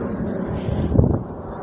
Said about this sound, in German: Naja, ich stehe jetzt wieder hier so ziemlich im Wind. Vielleicht hört man wieder diesen Wind.